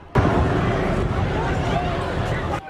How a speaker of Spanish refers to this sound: La celebración de los Kansas City Chiefs, ganadores del Super Bowl a la que asistieron miles de personas, se vio abruptamente interrumpida cuando se desató un tiroteo y se escucharon varios disparos. Luego se desató una estampida humana.